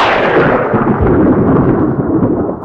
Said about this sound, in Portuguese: Então, o trovão é o famoso Castle Thunder, que é um som famoso de trovão usado em todos os filmes da história.